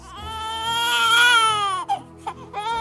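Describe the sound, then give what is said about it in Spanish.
A hungry baby cries: one long, rising-and-falling wail, then a few short, choppy sobs as it catches its breath. No talking accompanies it. “Yusus tiene hambre y llora, y su lloro lo escucha Omar.”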